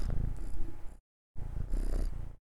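cat purring

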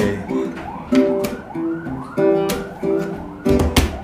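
ambulance siren

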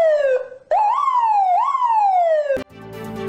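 police siren sound effect

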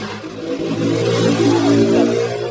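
motorcycle engine revving nearby

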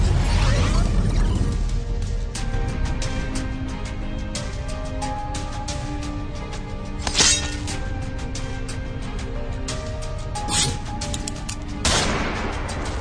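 gunfire sound effect

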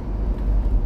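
car driving

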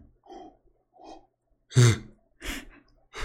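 yawn

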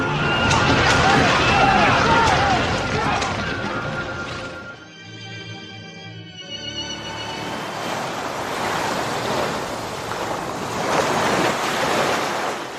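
sea waves crashing

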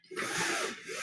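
window being closed

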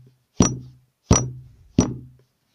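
knocking on a door

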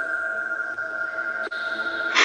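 phone notification ringtone

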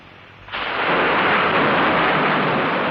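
thunder clap

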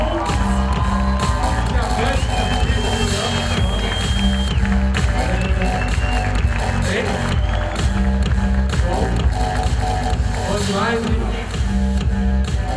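audience applause

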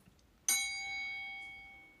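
bell ding

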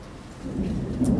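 thunder

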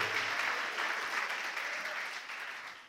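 audience applauding

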